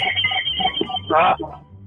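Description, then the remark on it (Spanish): A telephone rings in short electronic bursts, the loudest burst coming near the end, clear over a low steady hum. “Dios mío, tanto y ese teléfono.”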